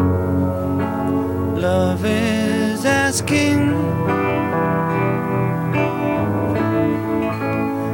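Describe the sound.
A dobro resonator guitar plays a steady, twangy accompaniment while a man sings over it during a recording take, the music full throughout with sliding, ringing notes.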